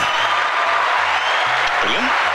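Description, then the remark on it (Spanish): Steady audience applause for the Campechada festival fills the whole moment, a dense, continuous wash of clapping, with a faint voice and low tones underneath and a brief rising whistle-like sweep near the end. “Pedimos aplauso al público a la campechada, claro,”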